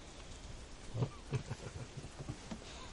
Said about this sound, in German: Ja, und jetzt hat es eben nochmal richtig runtergeprasselt, gewittert. Jetzt regnet es noch ein klein bisschen, aber das äh, hört ihr ja sicherlich.